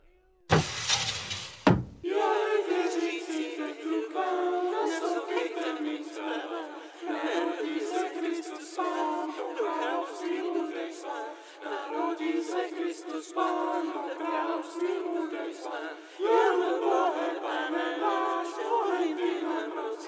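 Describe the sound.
A group of carolers going house to house, carrying mistletoe hung with little bells and a log carved into the shape of a toddler, sings together in full, layered voices that hold steady for about twenty seconds, right after a brief, loud burst of noise at the very start.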